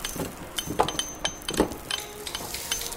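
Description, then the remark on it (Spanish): A pickaxe strikes hard ground again and again during hours of excavation that uncovered a door to Tutankhamun's tomb, with sharp metallic clinks and scraping thuds at an uneven pace, some blows louder than others, and no voices. “Excavamos durante horas.”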